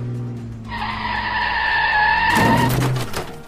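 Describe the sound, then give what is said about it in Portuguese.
A car engine rumbles as the car swerves between other cars to pass, then tires let out a long, loud screech as it skids, ending in a harsh, noisy burst as it crashes into another car. No voices are heard. “Tu guiando ali entre os carros, tu vai fazer um desvio para tentar passar, tu acaba batendo esse carro.”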